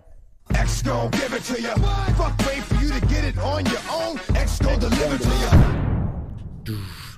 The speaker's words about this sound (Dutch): Knalt zo lekker. Blijft een lekkere intro